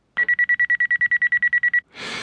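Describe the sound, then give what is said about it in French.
An alarm clock rings loudly at 6:30 in the morning in a fast, steady string of high electronic beeps, about fifteen pulses, then stops abruptly and gives way to a short burst of rushing noise. “Comme chaque matin, à 6h30, mon réveil sonne.”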